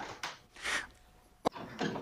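Doors being opened and shut: a few broad swishing, creaky movements and one sharp latching clunk partway through, moderately loud, with no talking.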